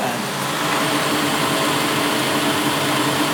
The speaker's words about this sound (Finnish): Itse mun pyykit meni linkoon, linkoon right. Alright. Alright, rock and roll. Mm. Siellä ne linkoo.